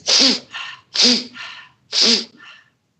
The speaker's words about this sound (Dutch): En ik deed het in door de neus en uit door de mond.